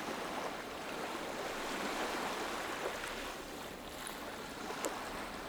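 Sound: ocean waves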